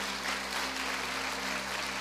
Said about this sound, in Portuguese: Pode aplaudir ao Senhor, querido.